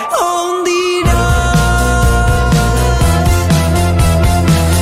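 A song plays loudly: a sustained tonal intro for about a second, then a full band enters with a steady rhythmic beat and dense harmonic instrumentation, no voices.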